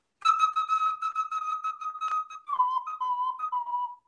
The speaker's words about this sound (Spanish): Es una ocarina, un instrumento precolombino del Perú.